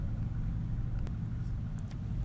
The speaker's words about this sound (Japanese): ちょっとなんかね、バイクがずっと止まり続けちゃって、ドロドロ言うてますけど、まあ、ああ、発信する。発信するのね。